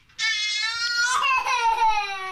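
A young boy cries at home in one sustained, high-pitched wail that slowly falls in pitch over about two seconds, loud and strained, with no talking over it.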